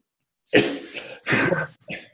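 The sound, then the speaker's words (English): Three harsh, raspy coughs in quick succession, close and fairly loud, the last one shorter and weaker, with no talking. “My question is, after I get through coughing,”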